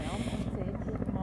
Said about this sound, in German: All die, die sich jetzt auf fünf Minuten Heli-Lärm freuen, die dürfen jetzt dann volle Pulle hochschalten Lautstärke voll aufdrehen, das ist jetzt für euch. Jetzt bin ich gespannt, wie der reinkommt.